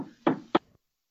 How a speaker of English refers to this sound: Some his wife's knocking on the door. Uh-huh. That's what that was.